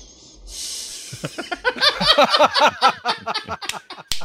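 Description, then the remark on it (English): A long, congested nasal sniff by Sylvester Stallone: a breathy hiss at first, then a rapid series of squeaky, wavering whistles as air forces through a plugged nose, growing louder before a final abrupt snort. “Here's Sylvester Stallone doing a long sniff and a whistle, and I captured it.”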